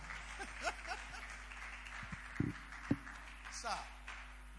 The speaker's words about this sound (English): And you know, will clap for me now. I'm just looking. Maybe this is your because you won't clap for your pastor.